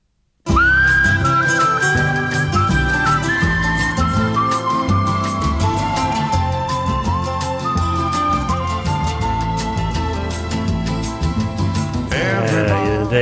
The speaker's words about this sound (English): And there is nothing better than hearing a good whistler